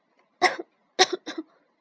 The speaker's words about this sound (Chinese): 我们在一座巨大的城市上方，这里所有的东西都在冒烟，房子、工厂、汽车、人。艾路伊斯话还没说完，就咳嗽起来。